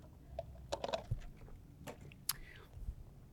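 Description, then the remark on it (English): Someone quietly sips hot coffee: a few soft slurps, small mouth clicks and a swallow, with brief breathy bursts against a low background hum. “Excuse me as I sip on this coffee.”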